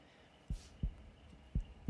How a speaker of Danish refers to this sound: Kan I høre hjertebanken?